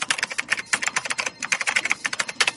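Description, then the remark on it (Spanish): Rapid, steady clatter of an office worker's fingers typing on a computer keyboard, fairly loud, with irregular bursts of keystrokes and no voices. “Así suena un oficinista trabajando.”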